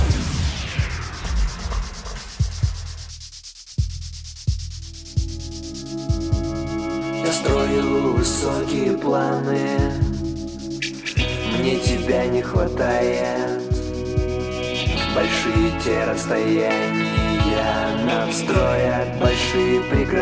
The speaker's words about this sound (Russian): мы немножко вам подсветим э, ту самую пластинку, которая недавно вышла. И я думаю, что уже многих очаровала и дальше будет очаровывать. Слушай музыку, дальше вернемся.